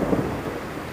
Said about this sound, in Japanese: 雷うるさいよなんか怒ってるよ何かまずかったのかな